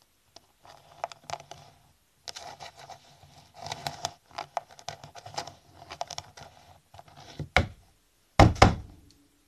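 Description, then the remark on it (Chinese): Irregular scratching of a monitor lizard's claws and light tapping against a glass door build for several seconds, then two heavy, booming slams as the lizard's tail whacks the glass, the final one loudest. “听着那指甲挠玻璃的声音和尾巴抽打玻璃的巨响，伙伴们都吓出一身冷汗。”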